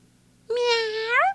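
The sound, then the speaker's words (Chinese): A single drawn-out meow, voiced by a person imitating a cat: a clear, fairly high-pitched tone that holds steady, then rises slightly before cutting off, after a short silence. “喵！家里的小灰猫这时候突然从啾啾妹的前面穿过去追她的小绿球。”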